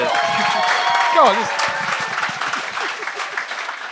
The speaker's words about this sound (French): hey, on peut l'applaudir.